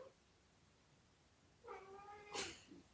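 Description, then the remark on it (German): A tomcat lets out a drawn-out, wavering yowl that rises into a harsh, louder caterwaul, heard alone against quiet background noise. “ich weiß nicht, ob man das hört, aber hier dreht gerade der Kater völlig durch.”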